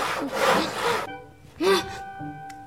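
handsaw sawing wood

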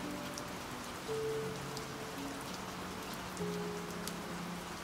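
rain falling

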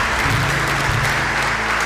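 audience applauding

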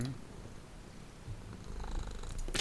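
cat purring

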